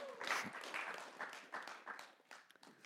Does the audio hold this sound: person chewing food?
no